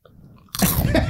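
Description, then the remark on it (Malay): After a brief near-silent pause, a voice abruptly imitates an ankle joint cracking with a loud, crunchy burst that rasps on for about half a second. “ah, kira anchor tu bunyi macam itu tadi.”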